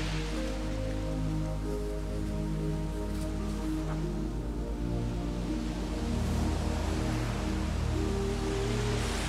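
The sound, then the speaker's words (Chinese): Ocean waves on a beach, heard as part of a yoga meditation scene, make a steady, hissing wash that swells slightly near the end, with soft sustained tones droning underneath; no one speaks. “有没有听到海浪的声音？”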